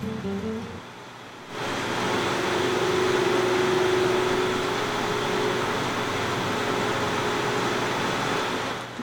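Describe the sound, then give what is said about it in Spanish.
Steady rain falling, a dense and continuous hiss that fades in after a brief quieter moment and holds evenly throughout, with a faint low hum underneath. No one speaks. “Eso que ustedes están escuchando, mis queridísimos bohemios y bohemias, es la lluvia.”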